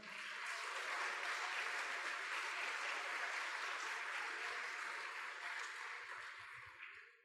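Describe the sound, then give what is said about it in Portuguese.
An audience applauds the Lord one morning in a sustained, dense wash of clapping that holds steady for several seconds and then gradually fades out toward the end. “Você pode aplaudir o Senhor nessa manhã?”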